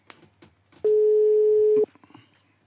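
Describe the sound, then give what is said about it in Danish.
A single loud, steady telephone ringing tone on an outgoing call, about one second long, with faint background noise before and after. “Du kan få uh, telefonen over her.”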